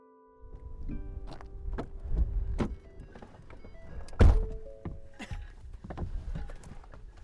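A pickup truck door slams shut with one heavy, solid thunk, surrounded by a series of lighter clunks, clicks and rustling as people climb into the pickup to drive out through the pasture to visit cows. No one speaks.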